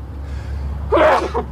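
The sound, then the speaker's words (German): A single sharp sneeze bursts out after a quiet inhale, over a low steady hum, with no talking. “Gesundheit. Danke.”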